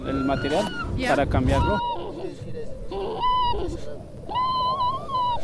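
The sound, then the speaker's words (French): A panicked vicuña lets out a series of shrill, whistling cries, roughly three drawn-out calls with wavering pitch, fairly loud, over a rough, noisy outdoor background; the animal is behind the speakers. “c'est une vigogne hein, qui crie. En réalité, on dit qu'elle siffle, car en fait là, celle-ci, eh bien, elle est paniquée.”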